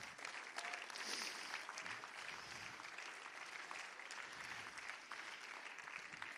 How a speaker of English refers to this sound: Clap your hands to the Lord if you don't mind.